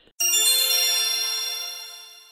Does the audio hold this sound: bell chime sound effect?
yes